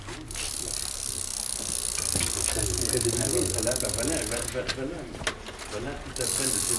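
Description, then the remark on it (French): The normal freewheel hub of Fausto's bicycle ticks rapidly and continuously as someone spins the wheel, a steady ratcheting buzz lasting several seconds, with faint voices murmuring in the background. “Est-ce que je peux avoir trois secondes de roue libre Quelqu'un pour me la faire tourner Combien Me faire tourner un petit peu le son du du vélo de Fausto.”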